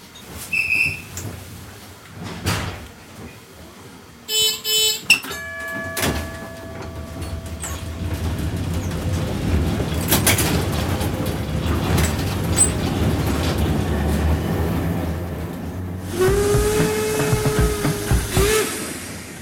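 A vintage tram at Schönberger Strand rumbles along its rails with steady low clatter, a bell or whistle-like chime near the start, a few sharp clunks, and a brief squeal toward the end.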